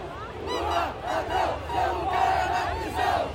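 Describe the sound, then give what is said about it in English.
A large crowd of Bolsonaro supporters at Brazil's 200th Independence Day celebration, near the military fort at the end of Copacabana Beach, shouts in unison "Lula, thief, your place is in prison", a loud, continuous mass of raised voices with rhythmic surges of chanting and no single voice standing out. “Now they're shouting, Lula, thief, your place is in prison.”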